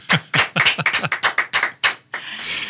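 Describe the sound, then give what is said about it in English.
A small group claps briefly, the claps fairly loud in a quick uneven run for about two seconds, then giving way to a soft rustling noise. “I hope you're going to fill that out with like crowds of applause.”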